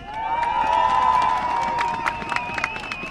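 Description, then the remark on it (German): A lively crowd claps and cheers as striking bus company ASIAG workers in high-visibility vests arrive with whistles at a strike gathering; scattered sharp claps over a steady, sustained whistling tone that holds throughout, busy. “Da kommen die streikenden Menschen von der ASIAG. Ein Applaus!”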